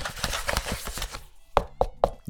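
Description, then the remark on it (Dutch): Three dull, hollow knocks on a half-litre cardboard carton, evenly spaced, following a second or so of soft crinkling and handling noise. “tegenaan kloppen. Nee, dat is net alsof iemand aan de deur staat.”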